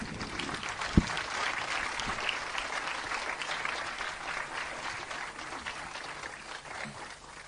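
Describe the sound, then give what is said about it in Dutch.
A church audience applauds the people about to be baptized at a baptism service, a steady, dense wash of many hands clapping at a fairly even level throughout, with one sharper thump near the start and a slight fade toward the end. “Kom maar, geef, laat een applaus geven aan ze.”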